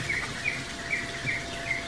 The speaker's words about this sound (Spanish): Tiene jaulas con canarios.